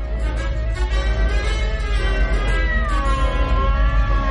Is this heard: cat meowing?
yes